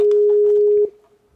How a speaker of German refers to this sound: So, Anruf absetzen. Jetzt klingelt es. Moment.